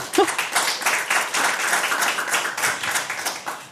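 A crowd applauds steadily, dense overlapping claps at a fairly loud, even level throughout, with a brief vocal sound near the start.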